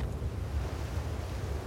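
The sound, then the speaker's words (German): A steady, deep roar of rushing water as a wall of floodwater races down a street in the Lower Ninth Ward like a huge flood wave, heavy and continuous with low rumbling turbulence and no voices. “Eine Wand aus Wasser rast die Straße hinunter wie eine riesige Flutwelle.”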